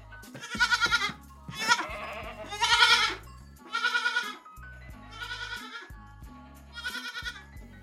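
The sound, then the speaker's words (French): Several goats bleat in a series of loud, wavering cries, one after another with short pauses and overlapping slightly, at a farm of 70 goats and young goats in the Brenne, in early-morning mist near milking time, with a faint low hum in the background. “Depuis 47 ans, Alain tient un élevage de 70 chèvres et chevrettes”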